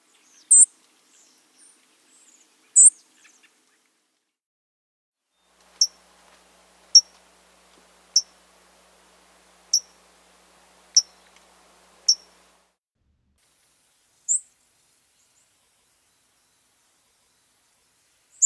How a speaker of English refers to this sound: Okay, now let's do that with their high pitched sip calls. Again, in the same order first song sparrow, then fox, white crowned, and then Lincoln's.